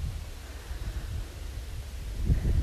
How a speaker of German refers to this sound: Und ich hoffe, du kannst mich noch verstehen, weil es wird gerade ein bisschen windig hier beim Spazieren.